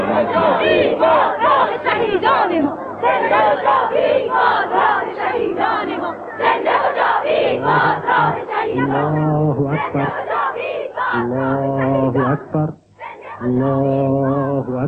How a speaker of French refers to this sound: cette espèce de mur humain qui est mouvant, qui remue, qui crie, qui agite des banderoles